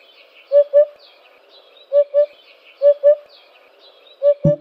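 A male bird's low, hollow "oop-oop" territorial call, given as four evenly spaced double notes in a steady rhythm, clear against quiet surroundings, with a brief thump at the very end.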